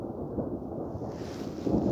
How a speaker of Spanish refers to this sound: Así es, quiere llover. No, son tormentas eléctricas. A lo lejos todavía, ¿no? Sí, hacia el lago está bien nublado, con nubes negras.